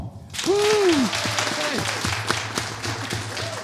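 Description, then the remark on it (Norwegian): An audience breaks into steady applause, clapping to vote for the option they found most fun, dense clapping throughout, with a few whoops and cheering voices rising over it near the start. “Og hvis dere syns østerstopp på bleier var gøy, så klapper dere nå.”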